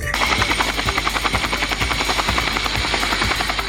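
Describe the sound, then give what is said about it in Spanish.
A police helicopter, relaunched with three drones to fight crime in the municipality of Nezahualcóyotl, thunders loudly and steadily, its rotor blades chopping in a fast, even beat over a broad engine roar, with no one speaking. “Nesa relanza helicóptero Coyote junto con tres drones para combatir delincuencia.”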